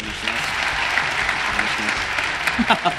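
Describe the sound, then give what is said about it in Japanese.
Steady applause from a small group fills the whole stretch, a dense patter of claps with a few louder individual claps near the end and some voices murmuring underneath, welcoming a pastor as he is introduced. “拍手お願いし”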